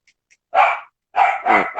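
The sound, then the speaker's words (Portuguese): A small dog barks sharply three times in quick succession, the yaps fairly loud, with a couple of faint ticks just before; no one speaks. “Cara, deixa, peraí que tem um cachorrinho e desaforada aqui.”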